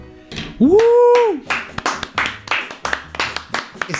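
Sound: applause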